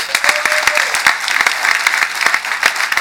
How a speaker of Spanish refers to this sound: vamos a dar un gran aplauso a ellos, le damos gracias.